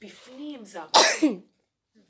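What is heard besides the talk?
sneeze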